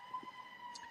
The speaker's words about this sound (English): I, I, apologize for the sirens. This Do you part of living in San Francisco? Yeah, I know. It's usually bad in my area.